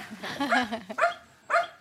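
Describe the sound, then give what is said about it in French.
A dog gives a drawn-out, whiny yelp followed by two short, sharp barks as it comes toward the listeners, moderately loud, with faint background voices. “Ah, mais le chien vient vers nous.”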